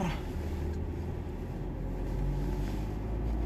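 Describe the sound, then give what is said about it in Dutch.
A car engine is started, turns over and settles into a steady rumbling idle, a low continuous drone with no voices over it. “Laat me even mijn auto opstarten.”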